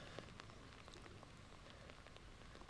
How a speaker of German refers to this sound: So, ich pirsch mich mal langsam ein bisschen vor im Regen, im Dauerregen.